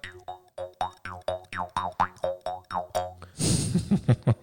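A jaw harp twangs in a quick, bouncy rhythm of about a dozen plucks, its boingy pitch sweeping up and down, followed by a brief burst of noisy, rattling strumming at the end.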